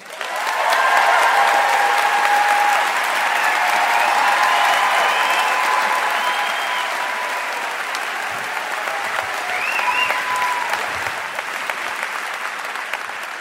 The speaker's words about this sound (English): Look at that applause you got. Look at that.